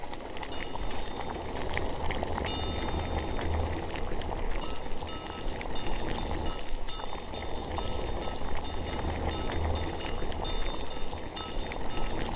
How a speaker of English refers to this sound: Anyway, enjoy uh, whatever this episode is uh, as we transition to the bubbles of the intro.